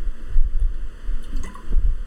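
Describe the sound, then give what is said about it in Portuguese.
Low gurgling swallows as someone drinks water from a 1.5-litre bottle, a few soft gulps and sloshes in an uneven rhythm with no talking. “Deixa eu tomar uma água aqui.”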